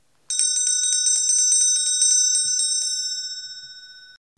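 An electric school bell rings loudly and steadily for about three seconds to signal the start of a lesson, a rapid metallic rattle of strikes, then stops and its bright tone fades away. No one speaks.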